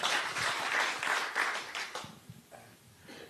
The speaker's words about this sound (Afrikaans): So ons gee vir hom nog 'n hande klap, dat hy behoorlik welkom voel.